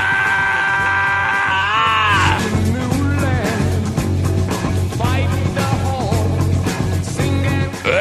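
A loud rock track with pounding low-end drive and a high, wavering wail sliding up and down over it, sustained and dense from start to finish.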